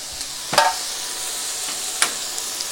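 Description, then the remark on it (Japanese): Steady hiss of back fat sizzling in a hot pan with flames leaping during stir-frying, with a couple of sharp metallic clanks, a louder spatter near the start and another clatter later. No talking. “背脂に炎がこう飛んであれですよあの中華料理屋みたいな感じになってるよ”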